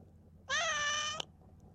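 A single cat meow, clear, lasting under a second with a steady, slightly rising tone over a faint background hum, ending with a small click.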